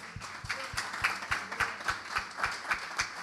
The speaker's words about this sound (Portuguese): Uma salva de palmas ao Senhor.